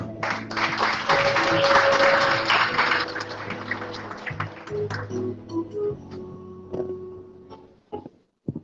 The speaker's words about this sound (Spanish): Un aplauso para mi querido.